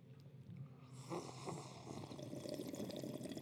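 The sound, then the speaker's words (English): Wet slurping and sipping of hot coffee, a medium and Vienna roast, by several people from cups after a toast, a few noisy draws of liquid running together over a few seconds, with no talking. “to drink our coffee.”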